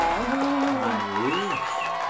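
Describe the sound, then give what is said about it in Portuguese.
Steady applause from a crowd with loud cheering and whooping voices rising and falling over it, lasting about two seconds without pause. “Então, uma salva de palmas para ele que tá na ponta direita.”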